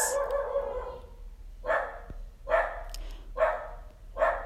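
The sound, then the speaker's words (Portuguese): A dog barks several times in a steady rhythm somewhere around, with short pauses between each bark and no one speaking. “Acho que tem um cachorro que está concordando com isso aqui em algum lugar.”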